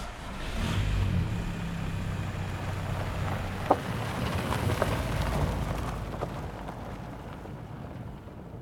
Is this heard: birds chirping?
no